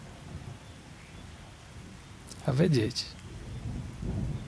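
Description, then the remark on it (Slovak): Steady rain hisses throughout, with low thunder rumbles swelling near the start and again toward the end, while a voice briefly speaks a few words over it. “Počúvať zvuky búrky”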